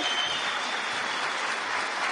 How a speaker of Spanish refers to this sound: Matías y Marta, sus dobles diamantes, un fuerte aplauso para ellos